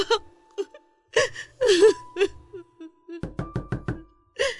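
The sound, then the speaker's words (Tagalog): A quick run of about five firm knocks on a door, following a few seconds of soft whimpering and sobbing sounds from a voice. “Buksan mo pinto!”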